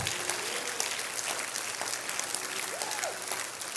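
An audience claps their hands in steady, dense applause, a continuous crackle of many palms lasting the whole time, with faint cheers and voices rising through it.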